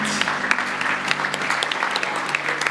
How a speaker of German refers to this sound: Und wir geben dir einen grossen Applaus, du wunderbare, wunderbares Licht von dieser Welt.